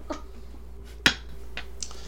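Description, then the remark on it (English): A single sharp clink of an empty glass set down on a table, bright and brief, with a few faint tinkles and soft clatters around it over a low hum. “Well, not slams, but sets an empty shack glass down.”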